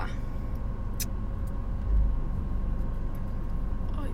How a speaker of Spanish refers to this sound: Perdón, es que hay unas nenas que llegaron aquí al estacionamiento. Y la nena parece que no sabe guiar. Y siento que me va a chocar el carro.